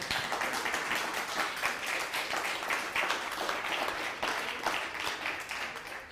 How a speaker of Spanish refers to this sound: Un fuerte aplauso para que se me quite la pena, por favor.